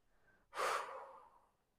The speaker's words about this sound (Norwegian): Skal vi gjøre det én siste gang? Pust godt inn. Og så holder vi pusten. Og så puster vi ut igjen.